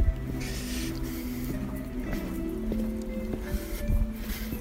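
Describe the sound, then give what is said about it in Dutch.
Footsteps crunch along at a steady walking pace on the Tusteen among graves, over a low hum of outdoor background noise; no one speaks. “We lopen hier nu op de Tusteen.”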